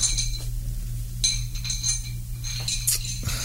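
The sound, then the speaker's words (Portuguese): Ice cubes clink against the sides of a whisky glass in several light, bright taps over a steady low hum with no talking. “Você quer um whisky?”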